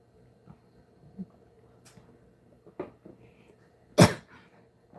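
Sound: cough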